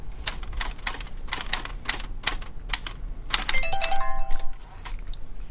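Brisk typewriter keystrokes clatter in a steady run as someone writes at a typewriter in a writing class, then a short, bright melodic phone text-message alert chimes clearly over the typing before the clicking resumes.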